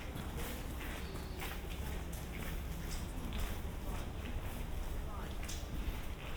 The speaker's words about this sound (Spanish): esos crujidos de las piedras